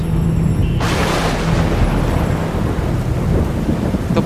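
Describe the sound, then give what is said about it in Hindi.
A loud rumble of thunder breaks in and spreads into a steady, dense downpour of rain that fills the whole scene, continuous, with no voices. The rain starts as darkness falls, with strong winds and cold weather. “पहले से कोई गोलाघाट ले जाने को तैयार नहीं है ऊपर से बारिश और शुरू हो गई”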